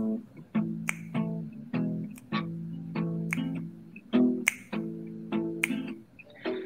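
Crisp finger snaps keep a steady beat, roughly one every half second, accompanying a person singing a slow bluesy tune in sustained, melodic tones that shift pitch.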